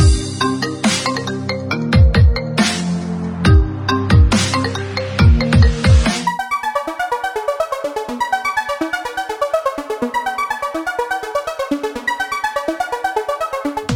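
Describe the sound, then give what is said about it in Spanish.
Punchy drum hits open, then a bright electronic phone ringtone takes over, repeating a rapid, chirpy melodic pattern loudly and steadily for several seconds with no voices, introducing the radio segment El telefonazo. “El telefonazo.”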